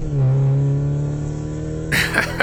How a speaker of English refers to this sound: Scooter floored it, and we went blazing out of that parking lot, knocking over a couple of trash cans from the Chinese restaurant next door.